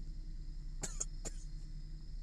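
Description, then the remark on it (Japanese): A person with a cough left over from an illness coughs three times in quick succession, two sharp bursts together and a third shortly after, over a low steady background hum. “喉が痛くなくなったんですけどこの声と咳だけが残りえー、この声と咳を聞いたらあのみんな逃げ出すので、まあ、そりゃそうですよねこのご時世ね”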